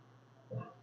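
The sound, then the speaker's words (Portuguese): A single short, low guttural growl from a boxer dog, brief and fairly quiet, rising out of a steady low hum near the end. “Aí vocês vão escutar aqui a gente corrigindo algumas coisas, porque a nossa boxer tá rosnando.”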